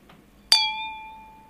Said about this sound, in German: ja, wenn wir schon nicht Alkohol trinken, dann trotzdem anstoßen.